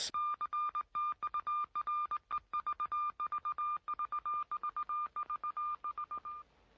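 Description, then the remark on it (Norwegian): Rapid beeping radio signal tones taken from the RKO Pictures studio opening, a steady high pitch chopped into quick, uneven Morse-like pulses, loud, running for several seconds before stopping abruptly. “Og så har de tatt eh, pipingen til RKO Pictures.”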